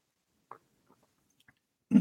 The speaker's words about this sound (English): excuse me, let me just get a drink of water. Sure, go ahead.